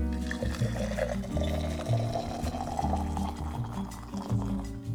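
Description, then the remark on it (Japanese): Hot water is transferred into a kettle for brewing Colombian drip coffee, a continuous gurgling stream with shifting pitch as the vessel fills, no voices present. “ケトルにお湯を移して今日はコロンビアのコーヒーをね入れていこうと思います”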